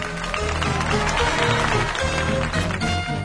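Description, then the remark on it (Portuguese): A dense, steady wash of clapping from a large circus audience as the curtain closes behind a magician, loud, with some tonal sound faintly running underneath. “A cortina se fechou atrás dele e o público aplaudiu.”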